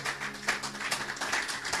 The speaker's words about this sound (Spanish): Pues déle ese aplauso aunque esté en casa.